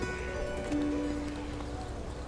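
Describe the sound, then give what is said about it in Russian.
Rhythmic hoofbeats of a horse clatter past at a quick pace, moderately loud and steady over a faint sustained tonal background. “Вдруг скачет мимо нее всадник, сам белый, одет в белом, конь под ним белый и сбруя на коне белая.”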